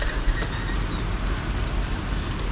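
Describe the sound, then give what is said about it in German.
Steady, hissing rain in Barcelona, a continuous wash of noise with a low rumble underneath, heard from a hotel room through an open window. No voices, moderately loud and unchanging throughout. “Ihr hört das vielleicht, das Rauschen. Das ist der Regen von Barcelona.”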